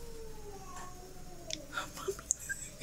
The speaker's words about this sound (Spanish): No mames, ¿qué es eso? No mames. Es un gato, es un gato, es un gato. Me va a dar algo. ¿Es un gato? Es un gato, es.